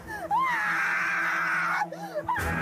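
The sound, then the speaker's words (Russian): A woman screams loud inside a glass booth with flies and cockroaches, in a Fort Boyard-style challenge: a couple of quick rising yelps, then one long, sustained high-pitched shriek, ending in short squealing bursts. “Почему вы так кричите?”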